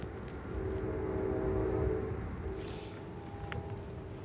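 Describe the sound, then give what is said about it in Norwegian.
A distant train from New York rumbles steadily while its American-style horn sounds a long, sustained chord that fades and returns more faintly, with a low roar of the train underneath and no voices. “Der hører vi eh, toget i det fjerne,”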